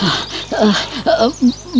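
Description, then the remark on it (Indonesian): Heavy, breathless panting: a run of rapid, ragged breaths with short voiced gasps and moans, like someone struggling to catch their breath. “Ambil nafas dulu.”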